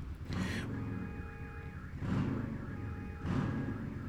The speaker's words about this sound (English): There's like a motorcycle revving their engine and a car alarm that's going off. Jesus. Can you hear that?